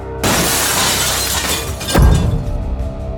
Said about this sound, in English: The three wolves gained their composure, just about to attack, when the sound of breaking glass filled the air.